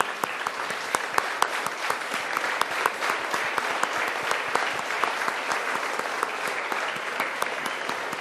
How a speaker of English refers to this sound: The chant that they did was so beautiful. So if you all can just stand up and applaud for them. I was so touched by what they did.